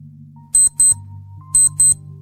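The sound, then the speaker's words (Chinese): A wristwatch alarm, set as a backup ten minutes after a four o'clock alarm, goes off in two quick double beeps, beep-beep, a pause, then beep-beep again, shrill and high-pitched, ringing out clearly over a low steady hum. “我的手表闹钟响了起来，那是我害怕没有听到四点的闹钟，所以多设定一个十分钟后的保险”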